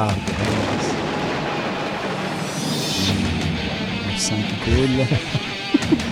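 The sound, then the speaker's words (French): A loud, dense heavy metal jingle driven by rapid double bass drum hits, a thundering low rumble with crashing cymbals throughout, and a brief voice emerging near the end. “La porte des ténèbres s'ouvre. Bien sûr. À la coupe de double bass drum”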